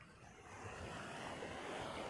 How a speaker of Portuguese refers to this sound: Pelo barulho das ondas,